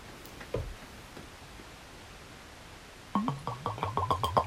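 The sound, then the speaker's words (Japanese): Liquor glugs out of a freshly opened bottle with a deeply narrowed neck as it is poured, in a quick, rhythmic run of hollow, resonant gurgles, fairly loud, following a soft clink and a few seconds of near silence. “ちょっとこれで注いでみますね”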